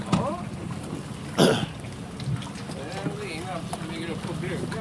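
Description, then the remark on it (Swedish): A boat's low engine rumble drones steadily as it pulls in to dock, with a brief knock or splash partway through and people talking over the hum. “ja, nu kommer den, solen mot Björkö.”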